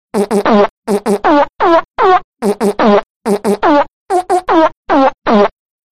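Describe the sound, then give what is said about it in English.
A rapid galloping rendition of the William Tell Overture played entirely with loud fart noises, short bursts grouped in quick triplet rhythms with brief pauses between phrases, no talking. “Here is the William Tell Overture.”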